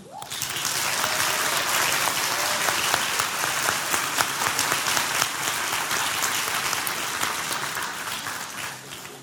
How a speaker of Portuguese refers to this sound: Vire-se para o irmão do lado e dê uma salva de palmas para ele.